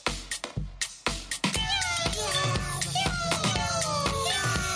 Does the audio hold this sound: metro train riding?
no